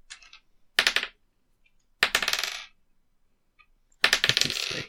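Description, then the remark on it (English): Coins jingle and clink together in a bag, shaken in three short bursts with brief pauses between, fairly loud, with no talking. “Uh, so, uh, with your bag full of coins, let me just see how much you've got now.”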